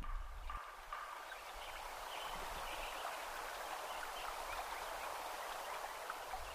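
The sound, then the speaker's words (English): A quiet, sparse meadow soundscape at Lincoln Meadow, Yuba Pass, California, one year after the forest was logged: a steady soft hiss of air with only a few faint, scattered bird chirps, and no voices. “Listen to Krause's recording one year after logging.”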